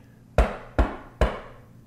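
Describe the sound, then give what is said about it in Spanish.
Three firm knocks on a door, evenly spaced, each a sharp dull thud with a brief ringing decay, with no voices. “golpearon a la puerta.”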